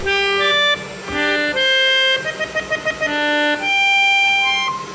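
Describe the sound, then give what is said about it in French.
A melodica whose tube is taped to a hair dryer, the dryer blowing air through it, plays a steady, reedy melody of sustained notes, with a quick run of short repeated notes in the middle, over a constant airy hiss. “Il relie le tuyau de l'instrument à un sèche-cheveux avec du ruban adhésif.”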